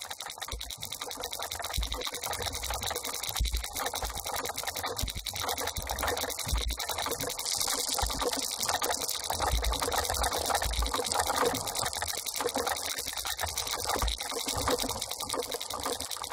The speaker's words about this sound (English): terwijl we luisteren naar de turbulentieklanken van Park en nadenken over haar ideeën omtrent innerlijke ruimtes en sonic flux